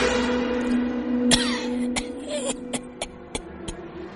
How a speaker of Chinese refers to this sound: 门外传来了咳嗽的声音。